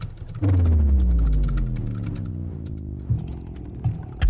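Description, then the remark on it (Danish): Rapid, irregular clicking of fingers typing on a computer keyboard, layered over a low, sliding electronic drone that swells in and then slowly fades. No one speaks. “Ikke en med krudt og kugler, men en, som har tastetryk og software-robotter som våben.”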